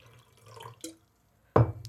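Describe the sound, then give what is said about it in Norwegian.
Water is poured in short splashy bursts: a soft trickle and a brief drip-like splash, a pause, then a louder pour that starts abruptly near the end. “Ja, der får du litt vann.”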